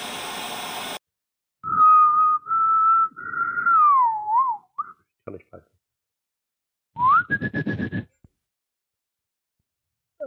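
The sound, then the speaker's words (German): A clear, mid-pitched whistled tune of four notes, the Hunger Games whistle, the last note gliding downward, followed after a pause by a short rising whistle over a burst of breathy noise. “es wäre schön, wenn du, wenn du so einen Hund ähm, so konditionierst, dass er immer bei diesem, bei diesem ähm, Hunger Games Pfeifen ankommt.”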